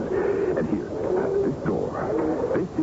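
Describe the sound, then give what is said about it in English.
A dense chorus of birds calling from the trees of the Plaza Borda, overlapping chirps and coos filling the air continuously at moderate loudness, with no clear pauses. “Now, this is the Plaza Borda, and every single branch of those trees is always filled with birds.”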